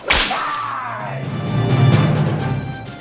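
A single sharp, loud whip crack snaps right at the start, followed by a sustained ringing, musical-sounding background that swells slightly before fading out.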